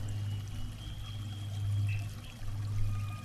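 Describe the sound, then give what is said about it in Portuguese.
Water pours and trickles steadily in a continuous, low, rushing flow from a small, very shallow waterfall of crystal-clear water in a forest, with a soft rumbling undertone that swells and eases. “onde você encontra uma linda cachoeira. Bem rasinha, a água cristalina jorrando, caindo”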